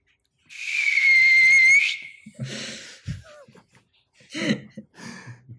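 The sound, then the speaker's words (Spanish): A voice imitates a sci-fi wormhole whoosh: a loud, sustained high whistling tone lasting over a second, followed by breathy hissing bursts and short vocal noises. “nos haga el ruido de cómo, es ese agujero de gusano, ¿no?”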